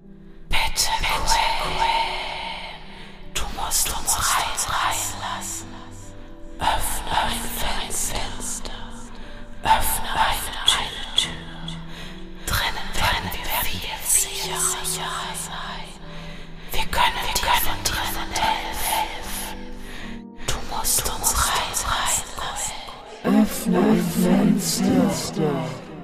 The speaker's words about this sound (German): Das Flüstern wurde lauter, dringender.